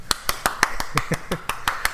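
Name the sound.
round of applause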